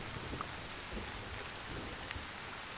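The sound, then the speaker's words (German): Heavy, sharp, cold rain pours down in a steady, dense hiss, with occasional drops pattering more sharply on a surface. No voices are heard. “So sehr der scharfe, kalte Regen auch wehtut, er lindert zumindest die Pein der vielen Mückenstiche.”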